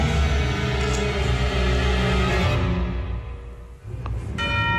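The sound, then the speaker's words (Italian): A bright orchestral bell rings out as a returning ostinato over a dense, loud ensemble texture, which thins briefly before the bell's clear, ringing tones return near the end. “La famosa campana che ritorna ostinata.”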